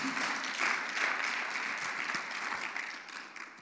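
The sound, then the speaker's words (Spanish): An audience claps steadily in praise of Christ, the King of Kings and Lord of Lords, a dense wash of many hands applauding at a constant level for several seconds, with no voices heard over it. “Dele fuerte el aplauso al Rey de Reyes y Señor de Señores.”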